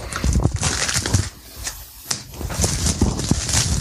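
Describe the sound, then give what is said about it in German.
Crinkling plastic film packaging on a product bearing the Penthouse logo being cut open with scissors: repeated crackly, rustling bursts with sharp snipping clicks, a brief quieter pause in the middle, then more crinkling. No voices. “Ich nehme mal irgendwie eine Schere dazu, weil das Plastikding ist ein bisschen störrisch.”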